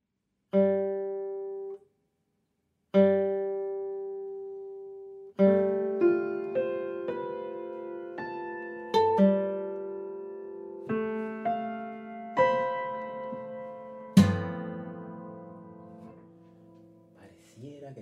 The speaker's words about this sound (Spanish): Bien, para guitarra y piano. Bueno, lo escuchamos.